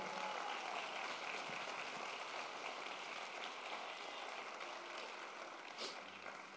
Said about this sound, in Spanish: Si tú lo crees, dale un aplauso fuerte.